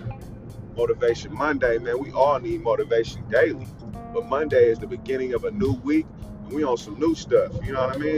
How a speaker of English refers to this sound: Excuse the background noise, cause I'm sliding. You already know it's I'm in traffic, man.